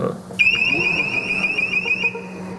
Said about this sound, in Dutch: Ehm, het alarm dat afgaat ja. zonder dat er iets passeert. Ja, dat is wel vreemd. Dus, eh, soms zitten wij gewoon aan de balie en dan hoor je ineens zo...